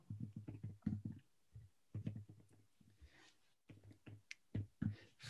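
Keyboard typing as someone types up a question as a note: quick bursts of clacking keystrokes in an irregular rhythm with brief pauses between runs, fairly quiet and heard alone without any voices.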